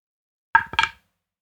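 A resin die rolled in a dice tray clatters briefly: two quick bright knocks about a quarter second apart, moderately loud, then silence.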